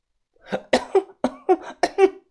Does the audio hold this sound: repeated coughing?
yes